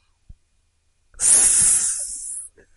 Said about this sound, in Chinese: 是响尾蛇。尾巴发出的声音是用来吓唬敌人的。